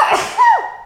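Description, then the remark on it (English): A single sneeze: a sharp, breathy burst that ends in a short, tapering vocal tail, with no talking. “Oh gosh, I'm gonna sneeze.”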